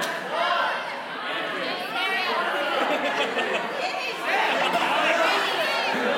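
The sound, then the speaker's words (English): A church audience at Cornerstone calls out guesses of the most common first name all at once, a loud, overlapping jumble of shouts with no single voice standing out, sustained for several seconds. “I can't even hear what you guys are saying.”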